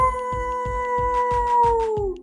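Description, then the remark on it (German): A person's voice imitates the howl of the wolf Aka, one long steady note that sags slightly in pitch at the end, fairly loud over a soft, regular low thumping. “Wie der Wolf Aka macht? Soll ich es mal machen?”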